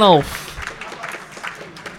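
A brief vocal sound gives way to a light, steady patter of audience applause that keeps going at a modest, even level until the end, as 14th place is announced in a ranking countdown.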